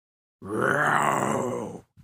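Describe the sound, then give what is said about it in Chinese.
A human voice imitates the roar of a super big dinosaur, which is angry and roars with its face turned up to the sky: one loud, sustained growling bellow lasting over a second, with a short, faint grunt just after it fades. “超级大恐龙生气了，他仰面朝天，大吼一声”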